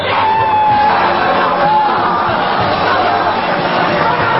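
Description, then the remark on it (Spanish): A loud, sustained celebratory yell from the first Spanish driver to win a Formula 1 world championship, in Brazil in 2005, over dense crowd noise, with cheering and shouting filling the background throughout; no clear speech stands out. “con la imagen del primer piloto español que ha ganado un mundial de Fórmula 1, que fue en Brasil 2005, aquel grito”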